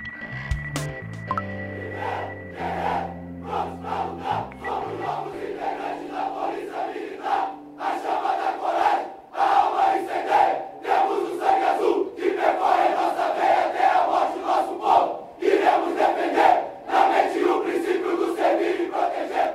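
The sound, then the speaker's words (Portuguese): A large group of police cadets at a PM Fluminense (Rio de Janeiro Military Police) graduation chants a loud, rhythmic battle cry in unison, forceful and sustained, after a brief low musical tone at the start. “Esse grito de guerra aí que a gente está ouvindo a da formatura de cadetes da PM Fluminense.”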